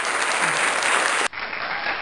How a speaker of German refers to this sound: Gib mir den Applaus! Kein Gelächter.